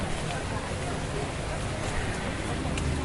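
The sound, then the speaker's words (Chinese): Steady, heavy rain pours down at Tokyo Disney at ten in the morning, a dense, unbroken hiss with a low rumble beneath, holding the same level throughout, with a faint murmur of voices mixed in. “好，那我就是来让大家听一下东京迪士尼的雨声。”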